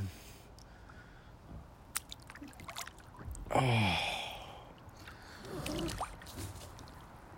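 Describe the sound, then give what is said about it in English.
Water sloshes and splashes in two heavy surges, with scattered drips and small squishy movements between them; a person briefly exclaims. “Yeah, we got way too much water in this thing.”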